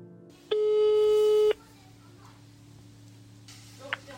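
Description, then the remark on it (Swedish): A single steady telephone ringback tone sounds for about a second, loud and clear over a low background hum, as a call is placed to reach a woman, then falls silent as the line waits, with a faint click near the end. “Till slut fick vi tag på henne via telefon.”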